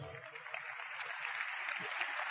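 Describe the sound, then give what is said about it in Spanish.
Steady applause from an audience at an Amway business talk, given for the late Bill Breed, a dense wash of clapping filling the background at a moderate, even level throughout, with faint low murmuring underneath. “Y, y, un aplauso.”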